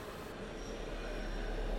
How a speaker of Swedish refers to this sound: Saga står på perrongen och väntar på tåget.